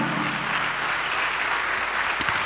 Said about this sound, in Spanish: A su nombre, gloria. Denle un aplauso a Dios, hermano.